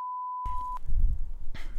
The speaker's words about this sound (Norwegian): Og skal vi se, jeg skal beepe bort det navnet.